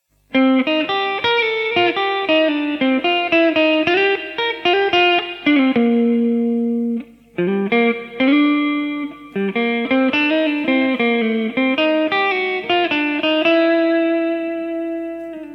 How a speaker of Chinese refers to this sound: 我现在用这一台 Marshall 的二五二五箱头举例，那这个箱头呢是有 Fax Loop 的。我先把混响效果器啊串在 Fax Loop 里面。声音呢是这个样子的。